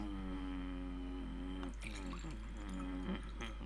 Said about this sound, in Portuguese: Vou só beber água